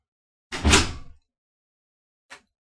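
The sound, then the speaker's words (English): A bathroom door swings shut with a full, thudding impact and a short rattle, then a faint, brief click follows about a second and a half later in otherwise silent surroundings. “Did our bathroom door just shut?”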